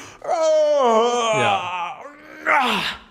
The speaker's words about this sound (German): weil du kannst ja zum Beispiel auch gähnen, gibt es ja auch so in der Etikette, dass man gähnt, ohne den Mund aufzumachen.